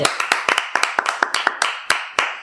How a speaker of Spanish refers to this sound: A todos ellos vamos a darle también un aplauso, ¿por qué no?